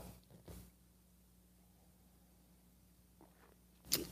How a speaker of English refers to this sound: Fill it with your favorite beverage. I like coffee. And join me now for the unparalleled pleasure. All of your chemistry is starting to come together. It's the simultaneous sip that happens now. Go.